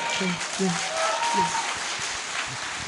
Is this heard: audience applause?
yes